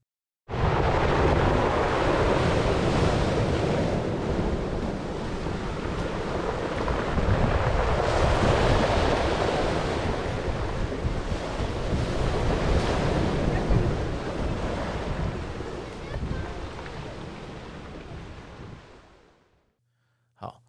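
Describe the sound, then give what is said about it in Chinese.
Waves wash up a beach of pebbles and gravel and drag back, the stones clattering and rattling in a dense, crackling roar that swells and eases for about twenty seconds, with wind rumbling underneath and no voices. “有一些浪过来，然后呢，打着那个水，呃，打着那个石头啦，那个水打的石头啊，鹅卵石砾石就会被浪打上来，然后下去就会听到咔啦咔啦那种那个声音啊，那个声音真的是我不知道怎么形容啊，就是一种很疗愈的感觉。”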